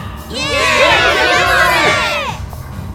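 A party crowd at a singles party in a booked-out bar erupts in loud, excited cheering and whooping, many voices overlapping in a high, rising roar that swells for about two seconds and then fades away.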